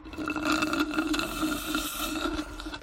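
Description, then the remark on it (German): A steady gurgling slurp of a Java Chip Chocolate Cream drink through a straw, continuous for a few seconds with a wet, airy rattle and no talking. “Es war ein Schlürfen mit einem Strohhalm.”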